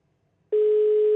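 After a brief moment of silence, a loud, steady telephone dialing tone switches on abruptly as a phone call is placed, holding at one even pitch until the end, with no voices.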